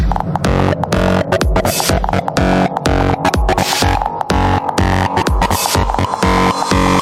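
Loud, heavily distorted electronic dance music with a gritty, buzzing bass throb and punchy beats driving steadily throughout, dense and saturated with no voices.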